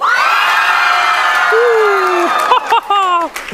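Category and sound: crowd, audience cheering and shouting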